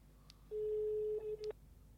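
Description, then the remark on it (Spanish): A steady electronic telephone ringing tone, from a call placed to a guest, sounds for about a second, a single sustained beep heard down a phone line, then briefly resumes before cutting off, with faint line noise around it. “Suena el teléfono.”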